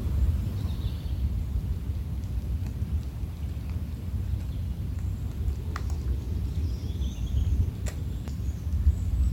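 Faint bird chirps flutter over a steady, deep rumbling wash that sounds like wind or rain in a forest, with no voices present.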